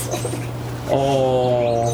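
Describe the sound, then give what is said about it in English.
Basil the dog, happy to see an arriving friend, lets out a high, drawn-out whimper, a steady nasal whine lasting about a second after a brief spoken exclamation, over a low constant hum, outside at a cafe. “Basil's talking.”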